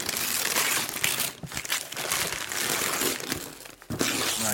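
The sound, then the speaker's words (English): Continuous crinkling and rustling of heavy snowflake wrapping paper being handled and torn open while unwrapping a gift, with brief pauses and sharper crackles throughout, no voices. “heavy snowflake paper.”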